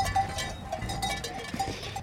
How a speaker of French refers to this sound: Vous voyez ces moutons là, ils sont à, à quelques mètres de vous là.